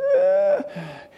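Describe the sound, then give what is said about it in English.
A voice imitates the stridor of a child brought in with so-called recurrent croup: a strained, high-pitched whistling inhalation followed by a rougher, wheezy breath, fairly loud, no words spoken. “This is the kid who comes in with quote unquote recurrent croup, who sounds like this.”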